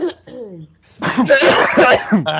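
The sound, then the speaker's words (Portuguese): A few short voiced sounds, then a loud burst of harsh, rapid coughing, several hacking coughs in quick succession lasting over a second. “Cara, cara, eu tô tossindo igual um velho.”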